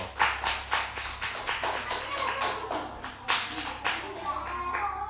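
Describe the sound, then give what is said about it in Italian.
An audience applauds steadily, called for by the host's 'Applausometro' (applause meter) after a jingle on an Italian show, many hands clapping in a dense, continuous patter that holds at a fairly even, moderately loud level for the whole stretch. “Applausometro.”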